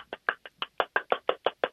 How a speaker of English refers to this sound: Whoa, what's that? You making oh, meatballs? The pulsing. I'm whipping up some crepe batter One with one hand while I'm talking.